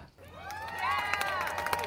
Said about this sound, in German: Ich klatsche nochmal. Ich lass nochmal klatschen. Ich lass nochmal klatschen für die Jungs.